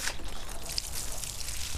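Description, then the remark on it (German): Water is poured steadily onto the soil around a small plant just set into a hole in the earth, near Nakuru, Kenya. A continuous trickle with faint splashing and soaking sounds, no voices. “Und dann ein bisschen Wasser draufgießen.”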